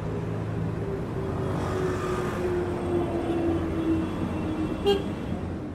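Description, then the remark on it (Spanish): Steady traffic rumbles on the street in front of a home, with cars passing continuously and a droning engine tone swelling through the middle, ending with a brief sharp sound near the close. “Yo acá estoy escuchando los autos que pasan. Yo vivo frente a una calle y pasan autos, pasan micros a veces, a veces pasan autos tan fuertes o, camiones tan grandes que vibran los vidrios aquí así.”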